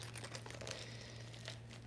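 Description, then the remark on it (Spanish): Continuous rustling and crinkling as the cardboard insert of a new notebook, which protects its pages, is handled and shifted about, with a steady low hum underneath and no voices. “Y bueno, como te digo, está nuevo, esta parte de cartón obviamente se remueve, es para proteger las hojas.”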